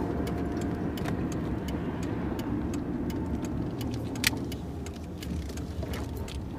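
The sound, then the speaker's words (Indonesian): A car's turn signal ticks steadily and crisply from the dashboard over the low, constant rumble of the engine inside the vehicle as the driver turns the steering wheel, with no voices present. “Lalita memutar kemudi Bunyi ketak-ketik sen mobil mengembalikan Yuda sepenuhnya ke alam bersama”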